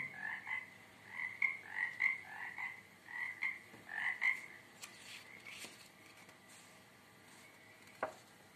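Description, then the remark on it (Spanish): A chorus of forty-three toads croaks in a lagoon in quick, overlapping bursts for several seconds, then thins out, leaving scattered faint clicks and a single sharp pop near the end. “Los cuarenta y tres sapos no podían entender nada. Entre confundidos e intrigados hablaban unos con otros creando un gran alboroto en la laguna.”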